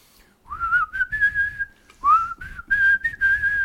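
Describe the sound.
A person whistles the Fort Boyard TV game show theme tune, a lively melody in two phrases of bright, sustained notes with quick upward slides, played alone with no talking.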